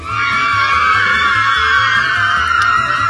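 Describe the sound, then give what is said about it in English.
A sound effect of a loud, sustained crowd of fans screaming at a high pitch, a dense shrieking wall of voices that holds steady for about three seconds with no speech over it. “Uh, you have fans screaming as well.”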